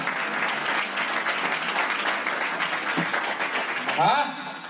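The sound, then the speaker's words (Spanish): An audience claps steadily for the Lord in a dense, continuous wash of applause that holds at an even loudness for several seconds, with a few voices calling out near the end. “Alguien le da un aplauso fuerte al Señor y le dice gracias Señor.”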